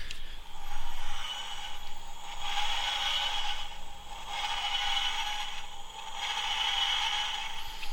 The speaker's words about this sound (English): Okay, so that's the dematerialization sound, and that generally drifts off in the background. So you get the impression that it's actually disappearing and going out.